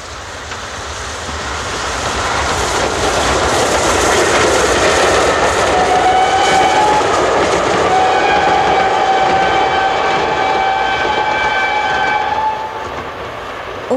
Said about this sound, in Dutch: Wij wachten altijd tot de stoomtrein langskwam en we vonden het prachtig om midden in de stoom te staan, zodat je even in een andere wereld was.